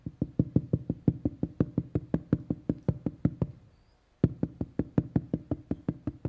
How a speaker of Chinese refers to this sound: 你注意到第十三节，在这边彼得敲外门，有一个使女名叫罗大出来探听，听得是彼得的声音，所以彼得在那边敲门。